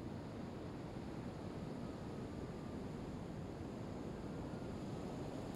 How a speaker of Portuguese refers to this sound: era aquela onda bem no ponto de encontro do rio Amazonas com o Oceano Atlântico. Uma onda enorme, cheia de ruído e força, arrastando tudo na sua passagem.